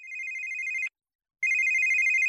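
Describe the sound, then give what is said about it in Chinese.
A telephone rings one night with an incoming call from an uncle, in two steady electronic bursts separated by a short pause, a bright sustained tone with overtones, moderately loud, with no talking. “那天晚上，舅舅打过来一个电话”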